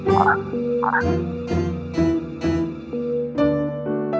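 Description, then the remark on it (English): A frog croaks in a steady series of short, resonant calls about twice a second, set against a bouncy, tonal musical backing, with no one speaking. “Suddenly, there's a flash of light, a puff of smoke, and Randy's a frog.”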